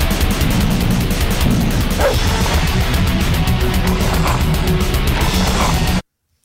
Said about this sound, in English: The different pitch of barks, the the different little snarl They're, growls.